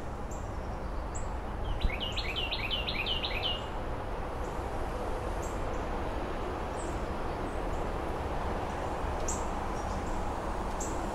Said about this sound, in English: September 19th, mid afternoon, the resident Blue Jay gang who helps alert me to any cat or snake or hawk situation in the backyard. Of course, now they're going to stop talking.